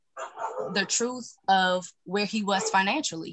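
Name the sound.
pit bull dog barking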